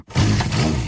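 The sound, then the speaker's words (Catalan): A voice imitates the straining engine of a 30-horsepower motorcycle on the motorway, with a loud, gravelly roar that starts abruptly after a brief pause and holds steady, unbroken, for under a second. “Versió RAC 1 quan una moto de 30 cavalls va per l'autopista sona així.”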